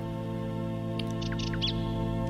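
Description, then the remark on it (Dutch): A nightingale sings a brief run of quick, bright chirps and trills, fairly faint, over a steady low droning hum that fills the whole recording. “Zoals ik deze nachtegaal.”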